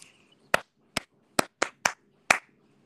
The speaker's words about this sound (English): I didn't hear you clapping though.